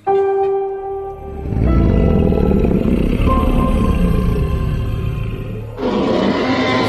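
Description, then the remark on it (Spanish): A loud, sustained dinosaur-like roar, part of an announcement made on a Monday during COP26: a tonal opening cry swells into a deep, rumbling growl lasting several seconds, then ends in a harsher, hissing burst. No one speaks. “¿Es un dinosaurio?”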